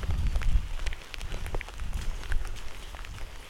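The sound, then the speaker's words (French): Steady rain falls on someone walking outdoors, a dense crackling patter with scattered sharper drops over a low rumble, continuous throughout with no voices. “Parce que quand même, ça creuse de marcher sous la pluie.”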